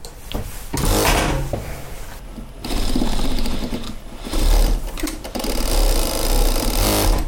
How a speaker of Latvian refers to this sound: Diezgan spēcīgs. Tas ir rūpniecības šūnu mašīnas. Jūs varat 1000 apgriezienā.